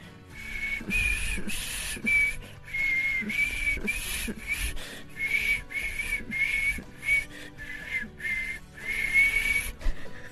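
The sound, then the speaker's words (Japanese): Someone whistles the Japanese song 'Haru no Ogawa' (The Brook in Spring), a steady run of clear sustained notes with short breaks between phrases, heard alone over a faint hiss of background noise. “口笛は続くよ、どこまでも”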